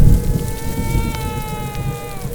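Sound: thunder rumbling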